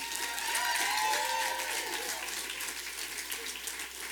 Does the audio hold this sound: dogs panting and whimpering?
no